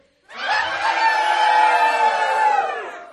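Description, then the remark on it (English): A crowd of people imitates a rooster's crow together, one long, loud, sustained cock-a-doodle-doo of mixed voices lasting about three seconds before trailing off. “Okay, one, two, three. You're good roosters.”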